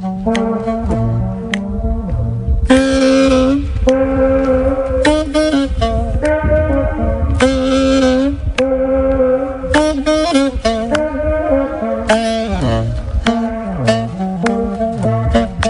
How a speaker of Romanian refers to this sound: Așa că s-a așezat în dreptul țevei și a pornit un concert. Și așa se aude cu tot cu eco. Fiți atenți.